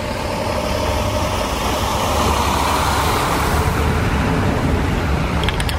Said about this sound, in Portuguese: Passado um ano da tragédia, os helicópteros já não são mais tão frequentes em Brumadinho. Por outro lado, um barulho que se ouve constantemente é o das máquinas e caminhões que fazem os mais diversos tipos de obras para recuperar a cidade.